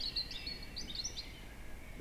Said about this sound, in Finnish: Yhtäkkiä, vain minuuteissa, kevätmetsä herää ääneen. Jo huhtikuun alussa on tällaista. Tämä on aivan fantastinen äänimaisema.